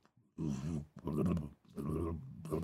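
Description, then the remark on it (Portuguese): A person's voice imitates the sound of a reindeer herd approaching from far away across a white horizon, producing a series of four throaty, grunting bursts in quick rhythm, fairly loud. “Assim, lá no horizonte, tudo branco, vê uma linha preta assim, ó. Que são as renas vindo.”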